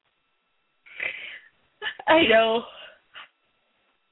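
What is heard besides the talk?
yawn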